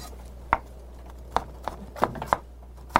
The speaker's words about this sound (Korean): 저는 당근을 썰 테니까